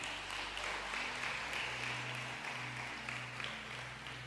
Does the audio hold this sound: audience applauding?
yes